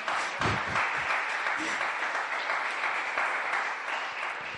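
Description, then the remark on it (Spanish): An audience applauds the Lord for the word just preached, a dense wash of clapping that holds at an even level for several seconds, with a few low thumps and faint voices mixed in. “Dele un aplauso al Señor por esta palabra.”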